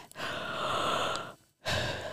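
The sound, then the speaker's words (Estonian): A single voice acts out a boy's long, drawn-out breathy yawn, fairly loud, followed after a brief silence by another airy exhale. “haigutus kiskus poisi suu pärani.”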